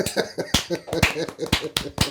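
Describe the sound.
Steady hand clapping to see off a guest, about five sharp claps spaced roughly half a second apart, with quieter claps in between and voices or laughter murmuring underneath.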